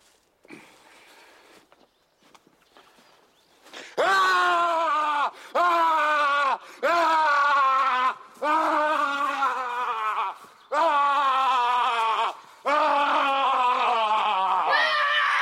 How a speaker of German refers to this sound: Einmal rumrennen und schreien. Los, komm. Hallo. Rumrennen und schreien. Mit die Energie mal rauskommt. Was hast du jetzt nicht verstanden an dem Satz rumrennen und schreien?